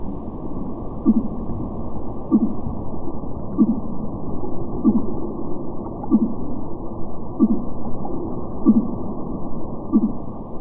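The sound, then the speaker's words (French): A male whale's love song, recorded with equipment that picks up very low frequencies: a steady series of low, moaning pulses repeating about every second over a constant rumbling underwater hiss, with no voices. “le chant d'amour des baleines mâles, enregistré avec des appareils qui captent les très basses fréquences.”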